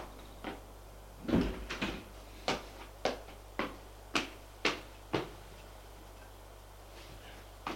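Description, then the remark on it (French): A door clunks open as a maid enters with drinks, followed by a steady run of sharp, evenly spaced taps or clicks. A faint low hum sits underneath, and no one speaks. “On frappe à la porte. Entrez Entre la bonne, avec les boissons”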